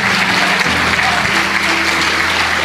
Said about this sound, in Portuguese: Vamos aplaudir o Senhor Jesus pelas pessoas que estão vindo.